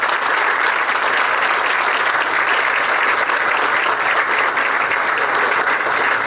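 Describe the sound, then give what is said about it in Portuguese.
A crowd applauds the Military Police of the State of São Paulo (Polícia Militar do Estado de São Paulo). It is a dense, continuous wash of many hands clapping at a constant loud level for several seconds, with no voices standing out. “Gente, uma salva de palmas para a nossa Polícia Militar do Estado de São Paulo.”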